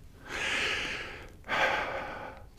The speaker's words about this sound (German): Er atmet schwer. Ich, ich das machst du in letzter Zeit oft. Schwer atmen.